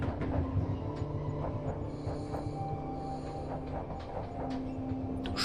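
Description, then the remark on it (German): A train rumbles steadily along the tracks, a continuous low hum and rattle with faint rhythmic clicks of wheels over rail joints, with no one talking. “während der Zug ruhig und gleichmäßig dahin gleitet.”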